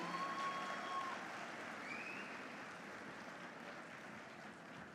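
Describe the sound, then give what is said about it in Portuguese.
An audience applauds steadily for about five seconds to welcome an invited couple, a dense, even patter of many hands clapping at once, holding fairly constant in loudness with a faint high tone or whistle briefly rising above it. “Queria que a gente recebesse eles com uma salva de palmas.”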